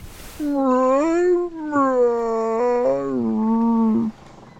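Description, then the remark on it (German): A dog slowly gets up, tiredly shakes its ears and gives a long, drawn-out, hearty yawn with a whining, howl-like voice. It rises, dips and wavers for about four seconds, loud, with no talking. “Der Hund erhebt sich langsam, ja. schüttelt die Ohren ein bisschen müde hin und her und gähnt nochmal ganz herzhaft und steht dann aber fußparat.”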